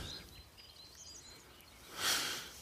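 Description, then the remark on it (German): Faint birdsong drifts through a quiet outdoor setting during an uphill walk with dogs, thin high chirps scattered over soft background noise, followed by a short breathy whoosh near the end. “Oh, ist das nicht herrlich, die Vögel zwitschern schon.”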